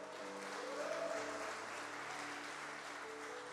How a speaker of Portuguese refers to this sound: Aplauda ao Senhor Jesus bem alto.